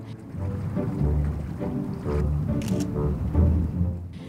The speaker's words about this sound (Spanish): Aquí están finalmente, tras nueve kilómetros de remo.